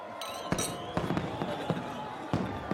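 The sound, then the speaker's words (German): Fireworks bursting in a rapid, irregular series of sharp cracks and pops, several in close succession, over a steady bed of crackling and noise. “Abendliche Strandfeste mit Tanzvergnügen, Feuerwerk oder farbiger Seeillumination – es sind diese Wochenendevents, die in den Sommermonaten neben dem normalen Tagesbetrieb das Bad besonders aufwerten.”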